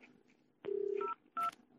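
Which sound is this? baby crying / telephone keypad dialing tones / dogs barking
telephone keypad dialing tones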